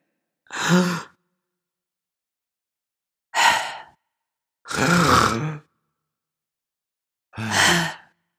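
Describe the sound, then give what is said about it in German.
A voice imitates a person breathing extremely loudly while sleeping in bed, four long rasping, sighing breaths separated by short pauses, with no speech in between. “Was Julius aktuell noch macht, ist unfassbar laut zu atmen.”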